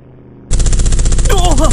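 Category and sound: impact, machine gun firing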